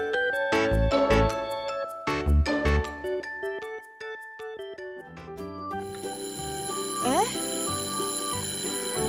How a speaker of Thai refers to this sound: เสียงออดดังแล้วอุ้ยต้องไปเข้าเรียนแล้วล่ะค่ะ